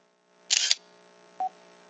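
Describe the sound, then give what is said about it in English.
A crisp synthetic camera shutter click from a phone camera app fires once, bright, as the phone held at an angle over a flyer takes a picture, followed moments later by a short electronic beep against a quiet background hum. “Uh, you could uh, try to find someone around to read it to you, or you can have access to this little device, and simply by positioning the phone at a certain angle over it, Taking picture.”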